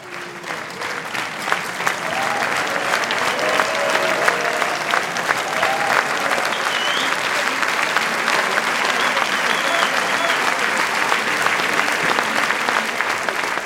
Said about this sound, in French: Une heure vingt plus tard, la pièce s'achève sous des applaudissements nourris comme à l'issue de toutes les représentations depuis sa création en 2019. Nous sommes le 29 mars 2022, c'est la dernière représentation au théâtre Victor Hugo de Bagneux